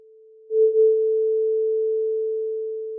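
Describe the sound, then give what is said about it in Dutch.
A tuning fork rings in sympathy after a second tuning fork, struck to vibrate 440 times per second, is damped, giving a steady, pure humming tone that starts faint, swells after half a second, then holds and slowly fades. No one speaks. “Wanneer ik deze dan demp, door er gewoon door te stoppen, dan hoor ik deze stemvork nog meetrillen.”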